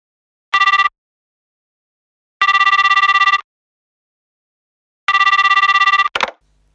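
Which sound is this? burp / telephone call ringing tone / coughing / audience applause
telephone call ringing tone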